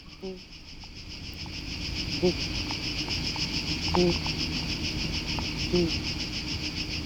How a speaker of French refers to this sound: c'est un enregistrement dans un terrier de lapin